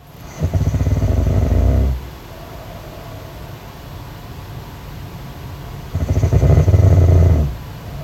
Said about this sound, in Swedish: här har vi då snarkning. Och nu fattar inte jag om det här är, är jag. För i sådana fall låter jag ju fruktansvärt. Det här, det här kan ju inte vara jag.